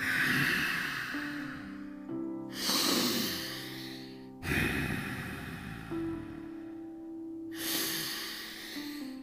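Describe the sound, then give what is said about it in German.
Slow, deep breaths in and out, three full cycles of airy inhaling and exhaling during a guided breathing exercise, with a soft sustained musical drone underneath. “So, jetzt dreimal tief atmen an der Stelle.”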